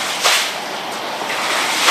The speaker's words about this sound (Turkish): Falezlerde yüksekliği 4 metreyi bulan dalgalar oluştu.